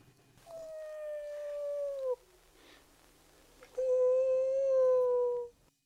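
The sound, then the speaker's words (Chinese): A camel cries out mournfully twice at night, not far from the listener: two long, loud, drawn-out tonal wails, each sliding slightly downward in pitch, separated by a short pause. No one speaks. “骆驼忽然哀叫了两声。”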